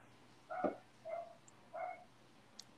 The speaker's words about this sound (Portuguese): Hoje a gente tem um participante especial. Sim, que é o cachorro do vizinho, que não para de latir.